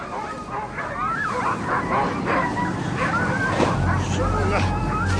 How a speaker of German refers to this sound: Was, was ist mit den Hunden los?